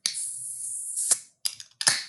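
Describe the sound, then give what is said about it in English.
Cans of The Fix, a double dry hopped zero IBU New England IPA brewed for International Women's Day 2021, being cracked open: a long, bright fizzing hiss ends in a sharp metallic snap, followed by two more quick pops, each trailing off into a short hiss. “So, yeah, let's crack these.”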